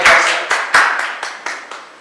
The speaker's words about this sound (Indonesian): Mari yang percaya sekali lagi berikan tepuk tanganmu yang paling meriah untuk